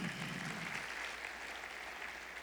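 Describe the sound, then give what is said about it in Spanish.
An audience at an afternoon church service applauds for their Saviour, Jesus. It is a dense wash of many hands clapping at an even, sustained loudness from start to finish, with no voices standing out above it. “¿Y cuánto le dan un aplauso a su Salvador en esta tarde?”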